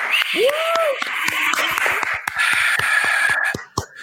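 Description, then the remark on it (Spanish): Applause with many irregular sharp claps running for about four seconds, mixed with a rising-and-falling whistle early on and a steady high tone partway through, before tapering off. “No tengo los defectos especiales, pero aplauso”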